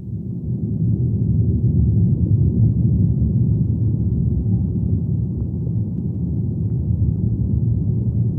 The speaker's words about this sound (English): the vibration of those leaves passed all the way through the tree right into the ground where we had the hydrophone